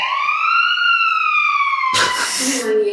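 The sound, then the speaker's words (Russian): A loud building evacuation alarm siren wails on a campus in Innopolis with a steady, slowly sliding tone, then breaks into a short harsh burst of noise before the tone resumes. “Всем немедленно покинуть здание, используя эвакуационные...”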